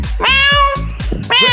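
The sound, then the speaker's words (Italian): A female cat lets out a long, loud meow, then starts a second one right after, with a low rhythmic thumping pulsing underneath. “questo è il gatto, questo è il gatto.”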